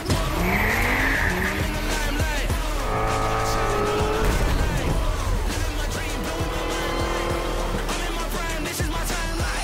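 A racing car engine in the video game Forza Motorsport roars and shifts pitch continuously while tires squeal in sharp, sustained bursts, loud, with a steady dense mix of engine drone throughout.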